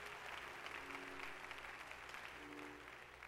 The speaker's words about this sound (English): Somebody ought to clap those hands and give God a hand of praise.